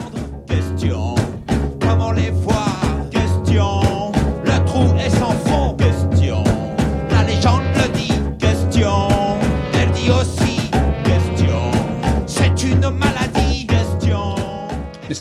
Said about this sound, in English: So look, we've um, we've, we've overrun on that one, so we will just crack on and, um, and roll up this week with the quiz. So let's roll that funky music, French boy.